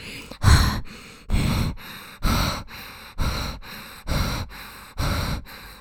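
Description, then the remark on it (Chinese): A voice imitates the panicked hyperventilation of someone very tense and out of breath: about six loud, harsh, gasping breaths in a quick, steady rhythm, each a rough rush of air with no words. “很紧张、喘不过气的时候，过度换气的时候，他会这样子”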